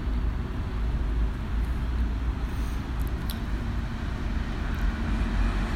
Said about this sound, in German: Ja, wir sitzen jetzt noch immer an der, an der Kreuzung. Es ist äh, Verkehr ein, ein sozusagen ständiges Fließen. Es ist so, hat kein Anfang und kein Ende anscheinend.